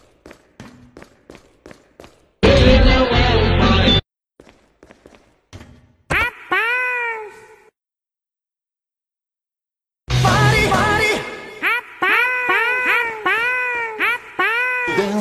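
A kitten meows repeatedly, its high, rising-and-falling cries coming in quick runs, with soft tapping and bursts of rough noise in between.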